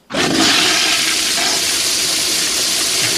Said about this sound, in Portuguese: Você não gosta de jeito nenhum, manda dar descarga aqui, ó.